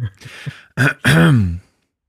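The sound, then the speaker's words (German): A rough throat clearing followed by two harsh, raspy coughs in quick succession, loud and dry, with brief breathy sounds before them and silence after. “oh, selbst das Husten hört sich scheiße an.”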